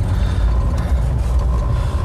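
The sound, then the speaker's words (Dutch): Steady engine and road rumble from inside a moving car in beautiful, warm weather, a deep continuous drone with a faint hiss above it, no voices, holding even for the whole couple of seconds. “Eh, en het is warm in de auto.”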